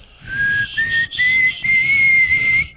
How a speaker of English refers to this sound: I think I speak for all the 12 and a half when I say let the wind do its job because you're not whistling at all. Can you not whistle? Well, I mean, w- no, it sounds a little more like this.